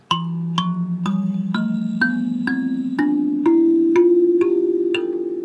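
A Japanese-made galimba with metal tines on front and back is plucked: about ten bright notes step gradually upward in pitch, each with a sharp attack and sustained shimmering tone, clear with no talking. Its longer tines give lower notes and its shorter tines the highest.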